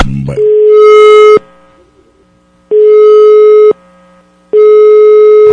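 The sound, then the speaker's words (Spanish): A telephone line tone sounds three times in steady one-second bursts with short silent gaps, loud and clear, after a brief click as a call is placed by a La Mejor FM 92.5 radio show. No voices. “Vamos a la llamada. Vamos a marcar.”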